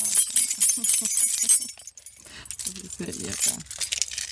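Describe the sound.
Two key rings full of keys jangle and clink in bright, metallic bursts, rattling on and off for a few seconds with a brief pause in the middle, while a voice murmurs underneath.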